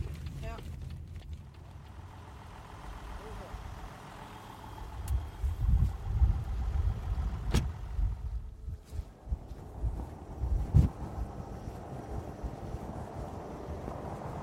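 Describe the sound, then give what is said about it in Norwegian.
A tall car carrying a VG reporter rumbles along at a steady pace past farms near Storavei, low engine drone with occasional bumps and jolts as if over an uneven road; a voice speaks briefly over the interior noise. “satte seg i bilen på jakt etter svar hos lokale bønder.”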